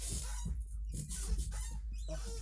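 household object, squeaky chair creaking

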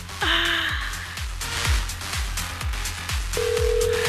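signal or alarm, telephone ringing

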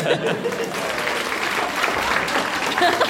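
crowd, audience applauding

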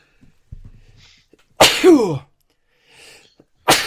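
human body sound, sneeze

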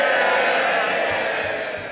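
crowd, applause in parliamentary chamber

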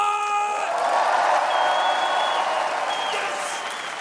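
crowd, audience applause and cheering

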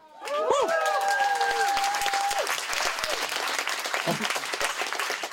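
crowd, audience applause and cheering

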